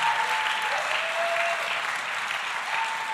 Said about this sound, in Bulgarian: Ако искаш да ръкопляскаш, ръкопляскай за Бога истински. Дай му слава, като че той е достоен.